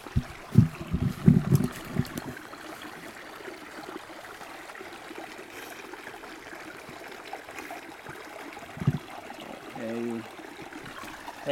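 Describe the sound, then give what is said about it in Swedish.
A steady trickle of a forest brook, with a short run of splashing and sloshing at the start as water is scooped up by hand to taste it, then a single soft splash later. “Jag måste nästan smaka på det här vattnet tror jag.”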